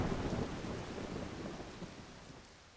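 A thunderstorm with a deep, continuous rumble of thunder over steady rain and gusting wind, loudest at first and slowly fading. No one speaks.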